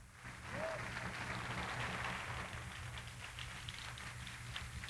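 An audience applauding the Lord together, a dense, steady wash of clapping that swells quickly and holds for several seconds, with a low hum running underneath.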